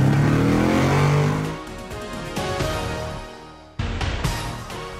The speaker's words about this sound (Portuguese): engata a primeira e acelera!